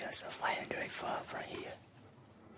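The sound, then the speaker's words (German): Hushed, breathy whispering from a voice in northeastern Myanmar, about 500 metres from a Burmese army camp, a few short phrases over about two seconds, then fading into quiet background hiss. “Nur flüstern, Gesten, äußerste Vorsicht.”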